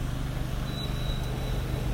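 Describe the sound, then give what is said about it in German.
Steady road traffic of cars driving past rumbles, a continuous low engine-and-tire drone with no clear rise or fall, plus a faint thin whine partway through. “Neben mir fahren Autos gerade.”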